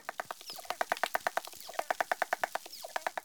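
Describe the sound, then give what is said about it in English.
A lone dolphin, recorded off Western Australia, sings with a rapid, steady train of buzzy pulses, about ten per second, with a couple of faint rising whistles above and no talking. “Here is one dolphin singing alone.”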